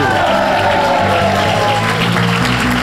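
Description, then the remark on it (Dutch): Steady, dense audience applause for the judges Bert Gabriels, Els de Schepper and Chris van den Durpel on the show De rechtvaardige rechters with Jo van Damme, holding at an even loud level throughout, a continuous wash of clapping with some murmured voices mixed in underneath. “Mag ik een veilig, maar niet al te afstandelijk applaus voor Bert Gabriels, Els de Schepper en Chris van den Durpel.”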